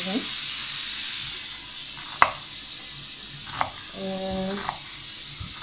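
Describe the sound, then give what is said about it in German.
Tap water runs in a steady, even hiss throughout, broken by a couple of sharp clinks and a short, tonal squeak toward the end. “Ich muss jetzt hier kurz Wasser aufdrehen.”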